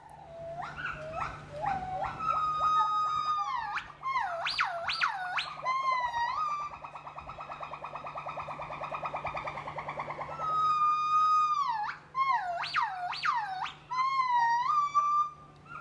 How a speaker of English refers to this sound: Many a morning I would just lie in my sleeping bag and listen and listen for as long as the gibbons were willing to call.